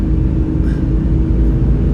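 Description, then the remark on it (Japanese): A steady, low engine rumble fills the cabin of a moving car, constant and fairly loud throughout with a broad hum of road noise and no voices. “またいつもみたいにあの車の中で流したいんですけど”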